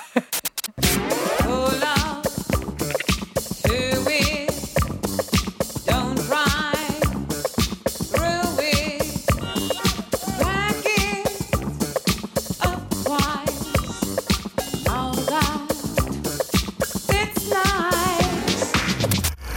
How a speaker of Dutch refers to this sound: We horen wat auto's toeteren, maar het gaat niet over auto's, zei je al.